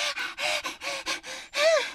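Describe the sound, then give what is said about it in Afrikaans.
A girl pants hard and fast after running into the house, a quick run of breathy in-and-out gasps, ending on one longer, louder voiced gasp for air. “Santi hyg en snak na asem.”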